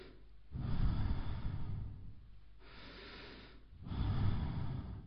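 Slow, deliberate breathing of the So-Ham mantra into the microphone: a long inhale and exhale, then a pause, then another strong breath, each one airy and audible with no talking.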